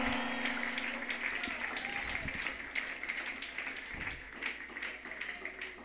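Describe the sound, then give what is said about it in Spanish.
An audience applauds the Lord steadily for several seconds, a dense, loud wash of many hands clapping together, with voices calling out underneath the clapping. “Un aplauso al Señor ahora.”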